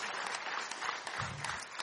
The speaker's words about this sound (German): Wollen wir Julia auch nochmal einen kräftigen Applaus geben.